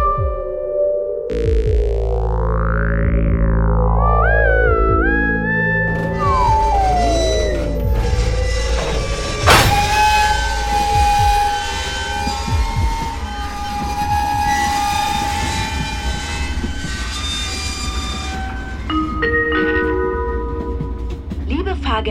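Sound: passenger train running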